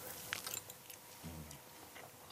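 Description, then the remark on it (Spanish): Quiet chewing of food that is still warm, with soft wet clicks and crunchy bites spread across a couple of seconds, and a brief low hum in the middle. “Cómetela que se va a quedar fría, dale.”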